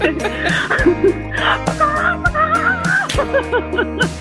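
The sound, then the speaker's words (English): A person vocally imitates a chicken, producing a quick run of warbling, squawky clucks and bawks, loud, with no other talking. “Give us a, good, a goodbye cluck, huh?”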